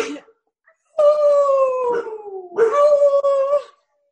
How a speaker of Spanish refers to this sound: ¿Qué voz más grave tiene Barça, no? Para hacer una perdita así. Ella ladra como si fuese un Doberman.